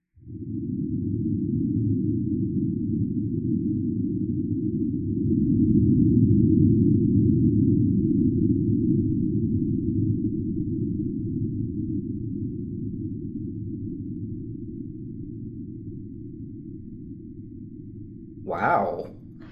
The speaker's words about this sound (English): Can we listen to one of these now? Yeah, let's listen to one of the Marsquakes.